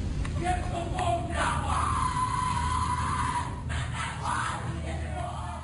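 A rowdy group shouts and yells together in a dense, continuous din at the Skull and Bones secret society initiation ceremony. Chant-like bellowing, including 'the devil equals death', and occasional screams rise over a low, rumbling background.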